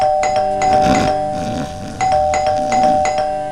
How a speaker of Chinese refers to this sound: 这门铃按的是又急促又夺命连环按，是谁？是谁在门外？